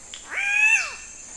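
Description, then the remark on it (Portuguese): A Guianan cock-of-the-rock in the Amazon rainforest at Presidente Figueiredo gives a single loud, nasal squawk that swoops up and then slides down, with a steady faint hiss of forest insects behind it. “Esse é o galo da serra e nós estamos aqui em Presidente Figueiredo, a terra das cachoeiras na Amazônia.”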